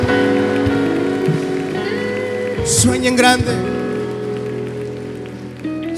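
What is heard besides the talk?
audience applauding and cheering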